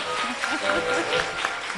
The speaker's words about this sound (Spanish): Un aplauso para ella, por favor.